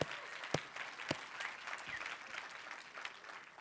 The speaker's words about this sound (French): Même si le Canada avait perdu, nous sommes plus que vainqueurs en Jésus. Et ça, ça mérite plus d'applaudissements encore.